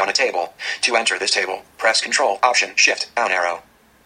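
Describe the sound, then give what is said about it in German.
The VoiceOver screen reader on a MacBook speaks English in quick, evenly paced phrases with short gaps, clear, then stops and leaves near silence. “Wie ihr hört, VoiceOver beginnt sofort mit Englisch zu labern.”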